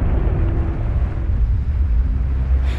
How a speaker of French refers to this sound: Soudain, un bruit terrifiant s'élève dans l'air. Le bateau se déchire entre la troisième et la quatrième cheminée la poupe retombe brutalement sur l'eau.